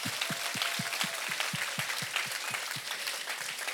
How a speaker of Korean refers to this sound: 예, 박수 치세요. 주님께 박수.